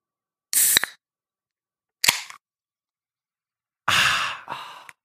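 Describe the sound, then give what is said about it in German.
A bottle of wild berry aronia drink is eased open slowly, close to the microphone: three short bursts of hissing air, each marked by a sharp little pop, separated by brief silences, with no talking. “Man hört irgend so ein Plopp-Geräusch, ist immer direkt Krombacher.”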